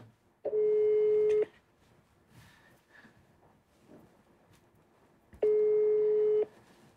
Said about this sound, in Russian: Вот, сейчас никто не берет трубку